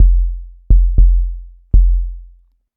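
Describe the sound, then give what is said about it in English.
Four punchy, distorted synth kick drum hits in a loose syncopated pattern, each with a sharp click and a long booming low tail, played alone and loud. “it gives it a little bit more punch with the distortion turned up a little bit.”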